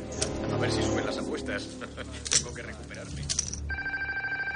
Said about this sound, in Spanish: El teléfono suena en la casa.